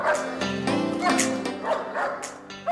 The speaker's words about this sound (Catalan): Com sentiu, els gossos, i no són pocs, formen part de la seva vida, del seu dia a dia.